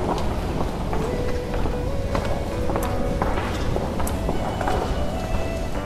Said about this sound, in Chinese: 办公室匆忙的脚步声